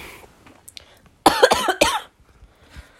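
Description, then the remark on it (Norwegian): A burst of loud, harsh coughing, a rough fit of two or three hacks in quick succession, with quiet before and after and no talking. “Det kan hende jeg fortsatt sliter med lungene litt.”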